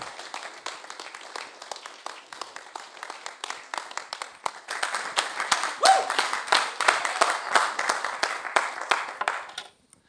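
An audience breaks into enthusiastic applause, many hands clapping in a dense, steady wash that swells louder partway through, then stops abruptly at the end. No one speaks over it.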